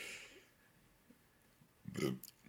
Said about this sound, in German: Das war der Kuss. Auf, aufstoßen. Aufstoßen bekomme ich von dir, alles klar.